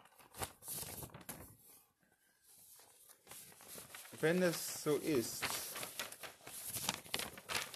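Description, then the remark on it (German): A man rummages through papers, searching for something, with a steady, scratchy rustling and crinkling shuffle that pauses briefly, then resumes under a man's spoken voice. “diese ganzen Papiere umzugraben.”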